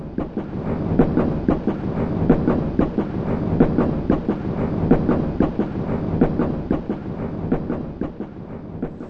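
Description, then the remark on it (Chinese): A train rumbles steadily along the rails, its wheels clacking in a regular, repeating rhythm over a continuous low roar, as it pulls into Shanghai station. No voices are present. “不久，火车驶进了上海车站。”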